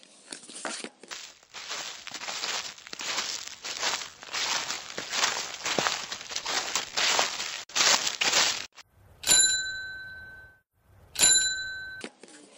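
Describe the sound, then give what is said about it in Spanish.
A bicycle rolls off with a steady crunching, rattling noise for several seconds as an old postman sets off early in the morning, then its bell rings clearly twice, a bright metallic ding each time. “Todas las mañanas, muy temprano, el viejo cartero sale de casa con el zurrón lleno, sube la bicicleta y empieza su camino.”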